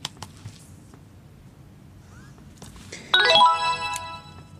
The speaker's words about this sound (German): Ich muss warten, bis ein leichter Vibrierton kommt und dann dieses Signal. Das kann man allerdings auch aus- und umstellen.